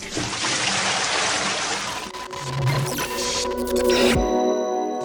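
A bucket of cold water being thrown over a person, heard as a loud rushing splash lasting about two seconds, followed by dripping, trickling and scattered clatter as it settles.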